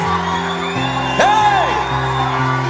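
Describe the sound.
A crowd of voices roars and yells together in imitation of a lion, over steady sustained music, with a sharp burst and a rising-and-falling whoop partway through.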